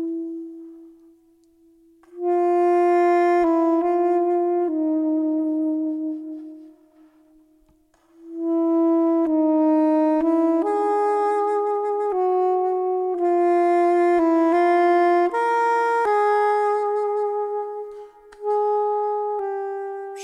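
A flugelhorn plays a smooth, mellow melody of sustained notes with a band, over a steady low tone, with a brief lull between phrases midway. No one speaks.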